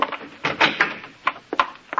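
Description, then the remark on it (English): A door being opened: a handful of dry clicks and rattling knocks in an uneven sequence over about two seconds, moderately loud, with no voices. “Open the door.”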